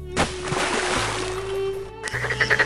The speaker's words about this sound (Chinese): 呱呱，青蛙吓了一跳，大声叫着。